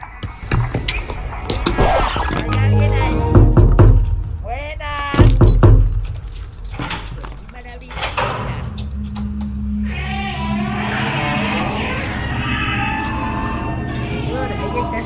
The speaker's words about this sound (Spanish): Uy, espera que están golpeando la puerta. Voy, voy, voy, voy, voy. Voy. Un momento. Ah, espera, apagamos esto primero y abrimos la puerta.